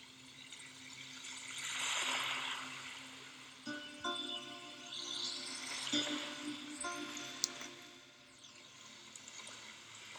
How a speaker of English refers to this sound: I love the gentle flowing sound that the diffuser makes, and I quite often listen to the little droplets of water while I'm stretching or reading at night.